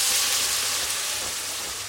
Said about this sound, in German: Ich habe jetzt ein bisschen Puderzucker rein und ein bisschen Tomatenmark und jetzt lösche ich mit Tomaten ab. Achtung, Tisch